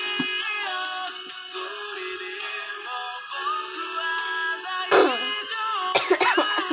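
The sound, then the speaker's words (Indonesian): A sustained, tonal musical backdrop plays steadily, then a sharp cough bursts out near the end, followed by a quick cluster of two or three more rough coughs over the music. “Maaf tadi batuk”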